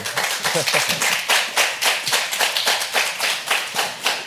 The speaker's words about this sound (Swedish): Men de applåderar många... spontant vid detta.